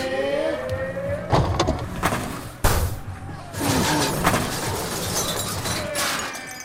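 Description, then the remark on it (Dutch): Several sharp metallic crashes and thuds of Trabant cars colliding on an ice rink during the annual car-curling championship in Yekaterinburg, one especially loud hit near the middle, over a steady background of engine noise and commotion. “Ah ja, het is met botsen natuurlijk.”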